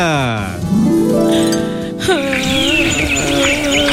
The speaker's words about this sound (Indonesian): Burung berkicau dengan riang gembira